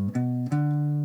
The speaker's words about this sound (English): So you want me to start with playing the G major triad? Yeah. Does it sound like this?